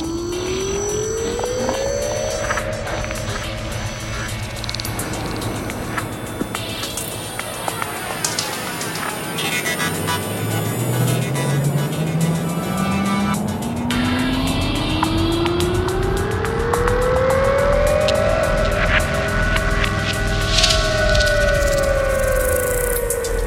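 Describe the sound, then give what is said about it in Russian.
A keyless-ignition rental car drives along a road, its engine note climbing steadily as it accelerates over continuous rumbling road and tyre noise. The sound is loud and unbroken, with no voices. “Съезжаю на обочину и останавливаю машину.”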